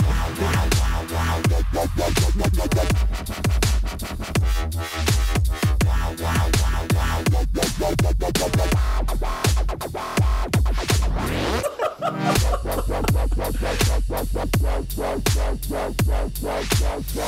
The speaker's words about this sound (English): you know, that dubstep intro can only mean one thing that we are getting a double weeks of Will.